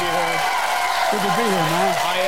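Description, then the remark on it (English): Steady, dense applause from a studio audience, a continuous hiss of many clapping hands at an even loudness, with a voice carrying over the top. “Oh, we got people clapping.”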